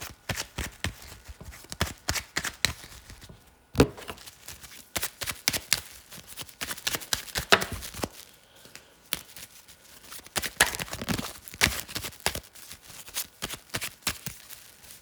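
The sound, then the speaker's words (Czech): Tarot cards being shuffled for a partner tarot reading, a steady run of quick papery flicks and riffles with a few sharper snaps, continuing for about fifteen seconds with no talking. “Já už se dívám na vaše fotky, míchám u toho karty a my se spolu podíváme, co nám Tarot poví o vás dvou.”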